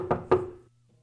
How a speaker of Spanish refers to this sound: Ya cuando acuerda el chúndaro caballo, ya le está tocando la puerta a la señora en la mañana.